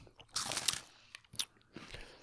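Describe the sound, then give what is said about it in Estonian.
Crisp crunching of someone biting into and chewing a snack, a dense burst of crackly bites followed by a few quieter, scattered crunches with short pauses between. “mulle maitseb.”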